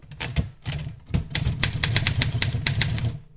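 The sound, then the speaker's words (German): Keys clack on an Erika manual typewriter as random words are typed in a quick, uneven burst of sharp strikes. The typing is fairly loud, with a low mechanical hum underneath and no voices. “Sie hieß Erika und ich tippte zunächst untereinander beliebige Wörter auf ihr.”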